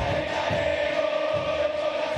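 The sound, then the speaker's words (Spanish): A dense, steady roar from a large football stadium crowd during a football match, cheering and chanting continuously with no breaks, loud and enveloping with a sustained tonal hum of many voices. “Porque desde que tenemos uso de razón, vamos a la cancha y vemos un partido de fútbol por televisión y escuchamos esto.”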